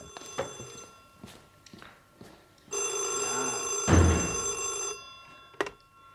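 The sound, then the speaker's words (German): An old-fashioned telephone bell rings loudly in a sustained metallic burst, with a few short rattling clicks before and after it. “Gut, dass du so lange hast läuten lassen.”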